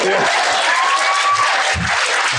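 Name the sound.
audience clapping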